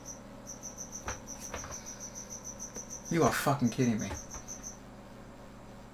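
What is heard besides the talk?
cricket chirping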